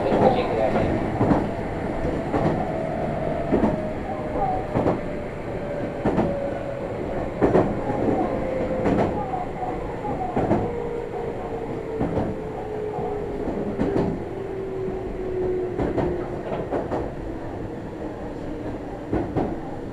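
A Meitetsu (Nagoya Railroad) train runs on the Chita New Line and Kowa Line in Japan, from Utsumi via Fuki to Kowa, with a steady rumble, regular clicking wheel beats, and a long, slowly falling whine from the motors as it travels.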